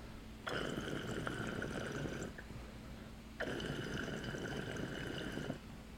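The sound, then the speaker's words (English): Two bursts of bubbling, gurgling water circulating through a glass recycler pipe, each lasting about two seconds with a steady churning rush, separated by a brief quiet pause. Fairly loud, with no talking. “these things move so much water effortlessly.”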